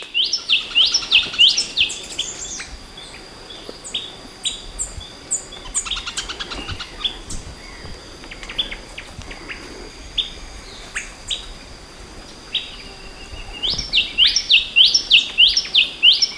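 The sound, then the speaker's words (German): Calls of an Inti tanager, a newly officially described species nicknamed the Kill Bill tanager: rapid series of high, bright chirping notes in bursts at the start and end, with scattered other bird chirps between over a soft background hiss. “Aber so oder so, mein Vogel der Woche ist dieser verrückte, erstmal Kill Bill Tanaga in Anlehnung an Yuma Thurmans schönes gelbes Dress mit dem schwarzen Streifen an der Seite und jetzt offiziell beschrieben als Inti Tanaga.”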